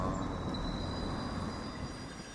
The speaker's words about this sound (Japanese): 明治通りを荒川線が走ってる感じがねすごいっすよねこんな大通りだよだって片側3車線あるんですよあ向こうからまた荒川線がレトロ車両が来ましたね風情あるな